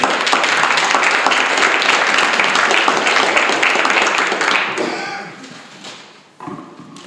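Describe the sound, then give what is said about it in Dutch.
An audience claps steadily for several seconds, a dense crackle of many hands that gradually thins and fades out, followed by a few faint murmurs and a soft thump, welcoming a professor from the Vrije Universiteit in Amsterdam who is about to speak. “Ja, doe even een applaus.”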